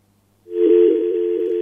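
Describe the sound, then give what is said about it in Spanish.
A steady, unbroken telephone line tone comes in after a brief silence as a phone call from New Jersey, United States, drops, humming on with a faint hiss behind it and no one speaking. “Se, se, se cayó la llamada.”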